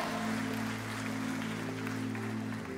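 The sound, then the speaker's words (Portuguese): An audience at a Portuguese-language church service applauds Jesus, clapping steadily in a dense, continuous wash of applause lasting a few seconds, while a sustained low keyboard chord holds underneath. “Aplauda Jesus se você crê.”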